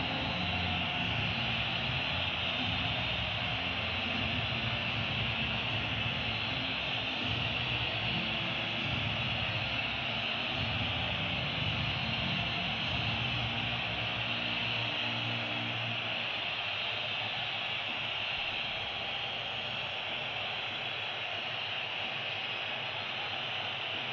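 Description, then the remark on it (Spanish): A stadium crowd whistles in protest as the anthem plays before a final. The whistling is a loud, shrill, unbroken wall that holds steady throughout, with a lower droning tone underneath that fades out partway through. “La pitada es tremenda.”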